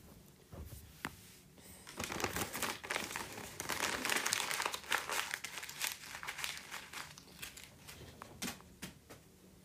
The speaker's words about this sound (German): Ich habe ein Blatt zerknüllt und anschließend weggeworfen.